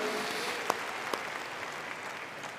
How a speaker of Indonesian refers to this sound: Sekali lagi tepuk tangan yang meriah buat Tuhan kita.